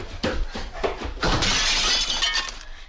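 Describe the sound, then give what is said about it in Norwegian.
A few sharp knocks, then a loud crash as an antique mirror in a hallway shatters, followed by a bright spray of glass shards tinkling and skittering for over a second before fading. No voices. “Tenk deg at barna løper om kapp litt vel nærme det antikke speilet i gangen.”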